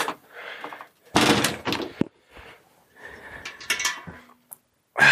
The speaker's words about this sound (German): Nasse Schuhe aus. Türe zu.